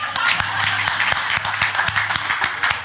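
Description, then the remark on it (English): An audience claps together to congratulate a woman who did well: a dense, steady patter of many hands with sharper individual claps standing out, loud and continuous for the whole three seconds. “Give her a clap.”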